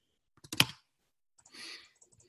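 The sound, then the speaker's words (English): A quick cluster of sharp, fairly loud computer clicks, then a brief rustling burst and a few faint scattered taps. No one speaks. “It gets mad at me for clicking too fast.”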